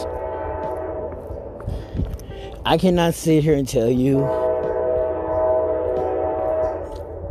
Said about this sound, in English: yeah, it's stupid trying to talk past this train, right?